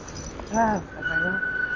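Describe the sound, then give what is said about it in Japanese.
A dog whimpers while greeting another dog it has just found: a brief rising, wavering cry followed by a longer, thin, steady whine. Faint background noise continues underneath. “あ、ちょっとね、犬がね、今ちょっとお友達を見つけましたね。”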